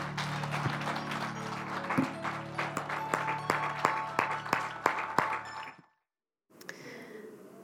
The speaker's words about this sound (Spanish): ¿Cuántos pueden dar un fuerte aplauso de alabanza al Señor?